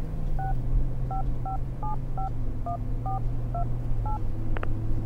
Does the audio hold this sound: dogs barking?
no